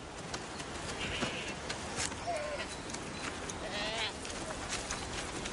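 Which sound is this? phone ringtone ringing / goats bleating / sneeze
goats bleating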